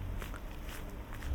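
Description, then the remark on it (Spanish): A few soft footsteps of people walking along an otherwise empty street by a station, evenly paced and fairly quiet, set against a low, steady rumble of outdoor city background. “Estamos nosotros andando un carril de bajada, otro carril de subida y luego las bicicletas.”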